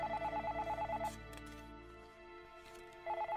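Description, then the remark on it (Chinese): The telephone in a small diner rings late at night with a rapid, warbling electronic trill: one burst lasting about a second, a two-second pause with a low hum underneath, then the ring starts again. “就在病木刚刚转身要回到厨房的时候，店里的电话响了起来。”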